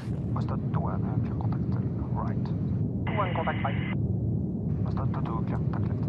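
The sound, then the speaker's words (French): Fighter jet engines roar loudly and steadily throughout, unbroken, during aerial refueling of NATO fighter jets on an air-policing mission over Europe's eastern flank, while people talk over it and a brief, tinny radio voice cuts in midway. “Ces avions de chasse sont en mission pour l'OTAN.”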